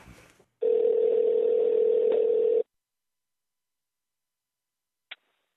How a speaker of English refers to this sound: you want to give him a ring? Yeah, let's give him a call. All right, let's do it.